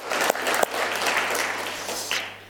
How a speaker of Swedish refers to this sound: En applåd.